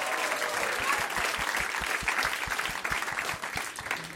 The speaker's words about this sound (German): Und dann einen großen Applaus für unseren Hund. Unbedingt.